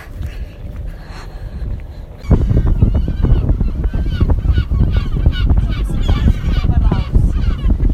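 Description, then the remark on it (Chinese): Seagulls call repeatedly with high, squealing cries, circling above a yellow boat as it sets out, over a loud, steady rumble of wind and the boat's engine that swells suddenly after the first couple of seconds. “这就是海鸥的叫声。”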